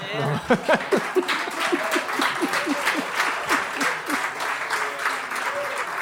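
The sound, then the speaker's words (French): A crowd applauds steadily, many hands clapping in a dense, continuous patter that holds at an even level throughout, with a few laughs and voices mixed in near the start. “Profitez-en parce que c'est la seule fois qu'on va vous laisser applaudir une opinion absolue.”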